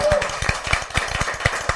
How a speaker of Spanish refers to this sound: Ay, bravo, aplausos.